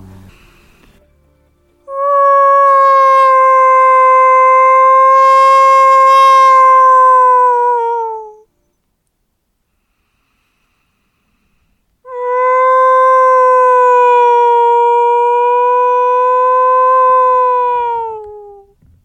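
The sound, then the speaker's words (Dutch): A person imitates a wolf howl aimed at wolves, twice, each a long, loud, steady sustained tone lasting several seconds, separated by a few seconds of silence. “Hoe bereid je voor op een, op een huil?”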